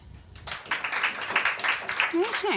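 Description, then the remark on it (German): After a brief quiet moment, an audience breaks into steady, dense clapping, voting in an applause poll for those who dislike the word "Heimat"; it holds at a moderate level, with a short vocal sound rising over it near the end. “Und jetzt mal diejenigen klatschen, die, den, die das Wort Heimat nicht mögen.”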